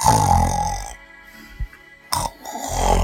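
A bear cub snoring: two loud, rough, rumbling snores, each lasting about a second, separated by a quiet pause with a soft thump in between.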